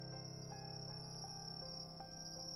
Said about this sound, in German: Um uns herum ertönten die Geräusche der Nacht. Wind, das Zirpen der Grillen und in der Ferne die Geräusche der Straße.